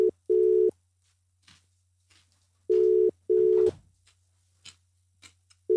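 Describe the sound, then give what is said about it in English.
A phone ringback tone, steady and electronic, rings out in paired bursts with a pause between pairs. Nobody answers, and a few faint clicks fill the gaps. “Let's see if she will pick up the phone.”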